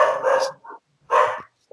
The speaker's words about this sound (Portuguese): Tem um cachorro. Tava... Quem é esse cachorro, né? Tem, é a minha, a minha cachorra,